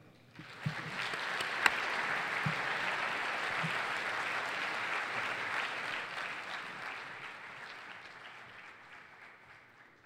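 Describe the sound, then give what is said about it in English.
An audience of teachers, students, members and friends of the City Club applauds steadily for several seconds, welcoming CEO Eric Gordon; a dense wash of clapping that rises quickly, holds, and slowly tapers off toward the end. “and now teachers, students, members, friends of the City Club, please join me in welcoming CEO Eric Gordon.”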